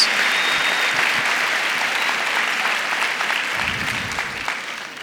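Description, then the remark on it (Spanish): An audience breaks into sustained applause for God, a dense steady wash of clapping that holds for several seconds and tapers slightly toward the end, with no talking over it. “Ese sí tiene un aplauso a Dios.”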